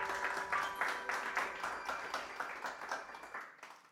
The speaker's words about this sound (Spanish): fuerte aplauso para nuestro Señor, mis hermanos.